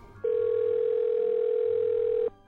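A steady, unbroken telephone dial tone as a phone call is placed, humming at a single mid pitch for about two seconds, starting and stopping abruptly over faint low background noise.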